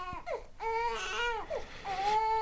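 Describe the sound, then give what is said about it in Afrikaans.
A baby cries in a busy household, in repeated high, wavering wails, loud, with short breaths between the cries and no other voices. “Die baba huil, roep Adelaide.”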